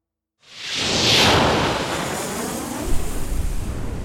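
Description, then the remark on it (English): A sudden roaring blast of scramjet booster thrust from the Condor surges in after a beat of silence, kicking in violently at 95,000 feet above the western coast of British Columbia, swelling into a broad, rumbling whoosh that stays loud and sustained, with a deeper low-end rumble building near the end. “The scramjet's boosters kicked in violently at 95,000 feet above the western coast of British Columbia, causing the external surface of the Condor to rise to over 700 degrees Fahrenheit.”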